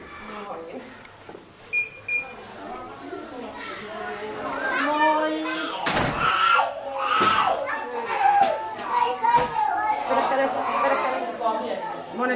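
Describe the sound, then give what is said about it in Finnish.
Several children shout and chatter excitedly while playing, their high voices overlapping in a lively, continuous din. A couple of short electronic beeps sound early on. “lapset, kun ne on niin niinku päiväkodista ja koulussa, niin ne alkaa huutaa koko aika.”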